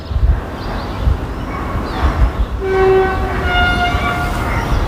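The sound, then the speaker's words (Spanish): A train about to arrive at an empty station approaches a level crossing with rumbling low noise, then sounds a sustained warning horn blast, heard from the station platform, its steady tonal harmonics holding through the second half. “ya escuchamos de fondo los avisos sonoros que va emitiendo conforme se acerca a un paso a nivel”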